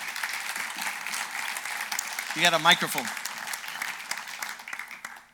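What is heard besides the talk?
audience applause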